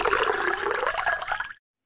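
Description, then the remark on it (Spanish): A man pours himself a glass of water in a kitchen: water pours steadily into the glass for about a second and a half, the splashing tone rising in pitch as it fills, then stops abruptly into silence. Clear, no voices. “Sirviéndose un vaso de agua, se decía a sí mismo.”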